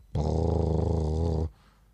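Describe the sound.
A person imitates a cat's purr with a low, steady, rumbling hum that holds for over a second before stopping abruptly, loud and continuous with a slight wobble.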